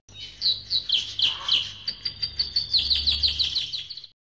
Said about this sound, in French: Pendant tout le film, on n'entend pas Emmanuel, mais les meuglements des vaches, le bruit de l'orage. Celui des oiseaux.